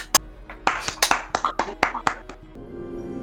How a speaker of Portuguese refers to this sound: Vamos pagar um pouquinho de pau. Uma salva de palmas pra CD Projekt Red.